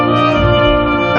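A short stretch of classical music by Brahms, a piece Boris Johnson has said he likes, plays steadily, with rich sustained orchestral harmonies held at an even, fairly loud level and no voices.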